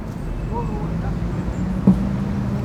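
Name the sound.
passing road traffic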